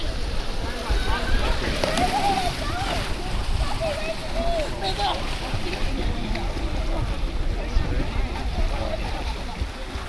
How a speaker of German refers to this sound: Weit weniger still ist es, wenn eine Horde Jugendlicher ihren ersten Ferientag am Lake Eacham im australischen Queensland verbringt.